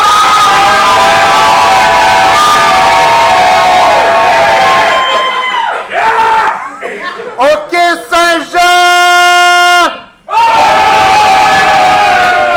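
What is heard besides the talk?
audience cheering and shouting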